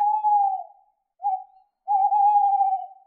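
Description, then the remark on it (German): A Eurasian eagle-owl hooting: three smooth, tonal calls with no one speaking, a longer call, a short one after a pause, then a long drawn-out hoot, clear. “Der Uhu ist zurück.”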